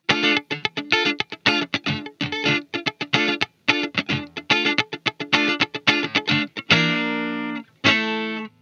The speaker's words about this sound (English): So it's almost a kind of a high low, like you're going high low, right, on the different string ends. Wow, that's that's really cool. Uh, that is like quintessential chucking.